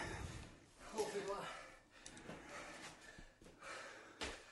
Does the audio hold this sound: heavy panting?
yes